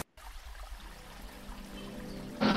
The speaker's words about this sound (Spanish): De repente, a lo lejos, avistaron un fuerte movimiento acompañando un estruendoso y feo ruido en el agua, lo cual les causaba mucha curiosidad, así que se acercaron.